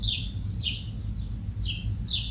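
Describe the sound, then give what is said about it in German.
Faint, high chirps of a native German bird repeat about every half second, five short descending peeps in a steady rhythm over a low, constant rumble of background noise. “Ein Deutsch, also ein einheimischer Vogel.”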